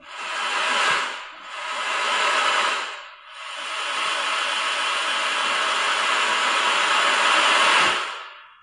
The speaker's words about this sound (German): Oh, oh, es kann sein, dass es ganz schön laut war jetzt. Na gut, gucken. Das war Applaus für uns. Ja, das war gut. Das sollte Applaus sein. Ja, das war als Applaus beschrieben. Das hat sich echt angehört wie Wasserrauschen.